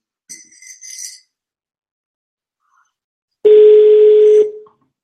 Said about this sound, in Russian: Слушайте, ну, балтийский лизинг, э, ну, друзья мои, что ж такое? Настолько крутая компания, что даже не берут трубки.